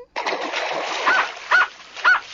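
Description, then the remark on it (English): A dog barks three times at an even pace, each bark short and fairly loud, over a steady rushing, splashy background of water. “Can the dog get in?”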